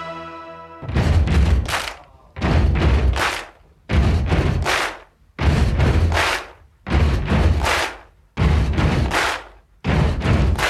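A loud, steady stomp-stomp-clap rock beat repeats about six times: two heavy booming thuds followed by a sharp clap, each cycle separated by a short gap, with no voices.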